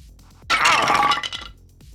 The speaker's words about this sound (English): fired on its rickety attachment to the ceiling and brought it down crashing onto the man's head.